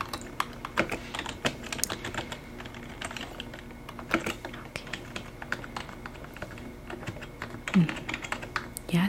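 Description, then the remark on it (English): Soft, steady typing on a computer keyboard at a resort check-in while a package is added to a guest's stay, with quick irregular clusters of light key clicks continuing throughout at a low, even volume. “With gentle keyboard typing and a calming soft-spoken voice”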